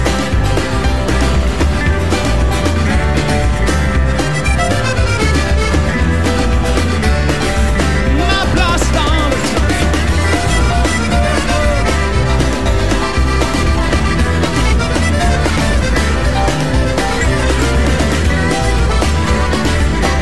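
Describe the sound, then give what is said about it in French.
A live recording of a French-language song plays loud and continuous, with full drums, bass and guitars filling the mix and a steady driving rhythm throughout. “voilà, voilà, vous venez d'entendre en live, issu du double tour,”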